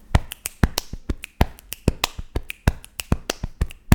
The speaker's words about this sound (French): Alors, tu fais sortir des notes tu fais aussi sortir des rythmes, notamment avec la percu euh, corporelle. Tu veux un extrait Carrément. si on entend bien avec le micro.